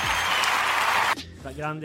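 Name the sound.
applause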